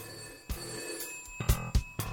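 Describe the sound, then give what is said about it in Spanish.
An old-style telephone bell rings for an incoming call with rapid metallic strikes over a sustained jangling tone, several bursts close together over about two seconds, clear and fairly loud with no voices. “Bueno, ya tenemos aquí la llamada.”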